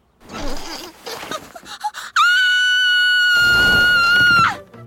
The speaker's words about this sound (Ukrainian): Так, дівчинка теж щосили закричала. Перелякана золотоволоска кричала навіть голосніше за ведмедів.